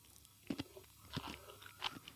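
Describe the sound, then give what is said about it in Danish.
Crunchy chewing of salt-cured jellyfish, a few sharp crackling bites spaced irregularly over two seconds, quiet with no talking. “Det er noget hårdere at tykke igennem, end jeg lige havde troet, faktisk.”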